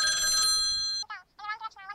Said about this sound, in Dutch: Oh, telefoon.